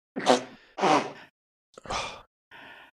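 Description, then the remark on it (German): A sneeze: two breathy inhales, then a sharp, forceful burst, and a fainter trailing exhale afterward. No one talks. “Gesundheit.”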